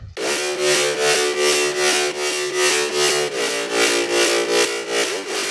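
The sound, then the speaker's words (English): A low, gritty distorted wavetable synth layer holds steady straight-note chords while an LFO playing quarter notes pulses it in a quick, even, bouncy rhythm, loud and upfront with no voices. “It's a really similar layer, but this one is the lower one.”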